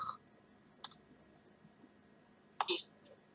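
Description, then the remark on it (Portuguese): A TalkBack screen reader's double-tap clicks as the user double-taps the Go button after typing a web address: a short, sharp electronic click, then after a pause a brighter double click with a quick chime-like blip, with no talking. “Eu vou dar um duplo clique no ir.”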